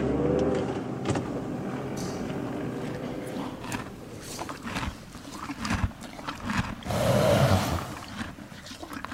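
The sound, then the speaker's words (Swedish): A car drives to a horse stable in the countryside, with a steady, low engine and road rumble, swelling briefly louder near the end. No one speaks. “Jag kör dit.”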